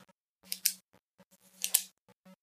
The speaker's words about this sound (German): Ich klappe mal meinen Kuli aus.